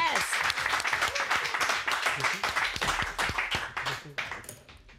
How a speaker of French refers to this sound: S'il vous plaît, tonnerre d'applaudissements.